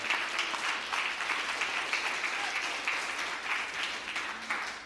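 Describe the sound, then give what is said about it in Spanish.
An audience breaks into steady applause for the Lord, many hands clapping together in a dense, continuous patter that holds evenly for several seconds with no one speaking over it. “Dios mío, ni siquiera un aplauso al Señor, hermano.”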